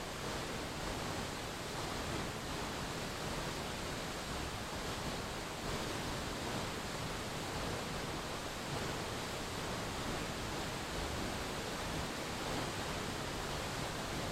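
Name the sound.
flowing water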